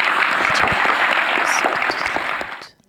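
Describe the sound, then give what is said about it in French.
A crowd applauds the guests who gave testimonies, clapping steadily in a dense, sustained burst of applause that fills the space, then tapers off and fades out near the end. No one speaks over it. “on me dit aussi, faut, merci beaucoup, vous pouvez les applaudir.”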